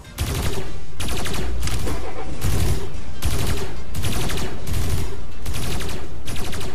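Sustained bursts of automatic gunfire, loud and rapid, repeating in roughly half-second volleys with brief gaps between them, fired as covering fire while another person runs to a car, against many opponents.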